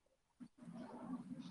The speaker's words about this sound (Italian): Più o meno sì, sono praticamente sul balcone. Infatti se, se sentite delle rane in sottofondo dei grilli è...